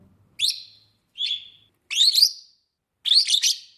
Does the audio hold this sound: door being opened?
no